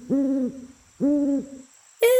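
Two steady, mellow owl hoots, each about half a second long with a short pause between, followed by a higher, shriller call at the end. No one speaks.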